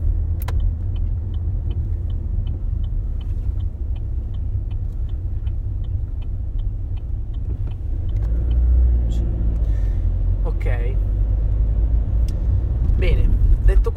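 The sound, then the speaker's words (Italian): Steady low rumble of a car interior moving through traffic while the person is driving, with engine drone throughout and a brief hiss like an air brake near the end; a voice talks faintly at times. “scusate ma sono un po' ne- immerso nel traffico e quindi a volte devo staccare la concentrazione dal mondo dei sogni a quello reale purtroppo.”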